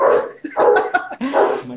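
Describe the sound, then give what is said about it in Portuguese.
A small dog barks several times in quick succession, sharp high-pitched yips that are fairly loud, with no one talking over them. “Oh, cachorrinho.”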